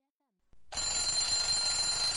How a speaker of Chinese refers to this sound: 闹钟响了。